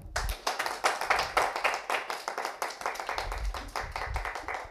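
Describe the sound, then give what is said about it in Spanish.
An audience applauds steadily at the close of the third talk of Biblioteca de Noche 2023, a dense patter of many hands clapping at an even level without rising or fading, and no voices break through. “un aplauso por favor.”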